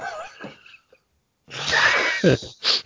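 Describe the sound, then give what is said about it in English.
A sudden sneeze bursts out after a short pause, a sharp noisy blast followed by a quick breathy release, with brief murmuring before it. “Did for you that sneeze there?”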